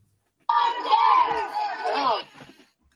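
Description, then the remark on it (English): A crowd of Hasidic children in Brooklyn shouts the protest slogan "We want camp" together in one loud, sustained burst of massed voices lasting about two seconds, then falls quiet. “Hasidic children protesting across Brooklyn”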